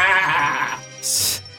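A sheep gives one loud, wavering bleat lasting under a second, followed by a short burst of hissy noise. No talking.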